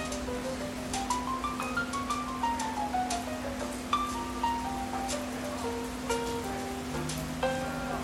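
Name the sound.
rain dripping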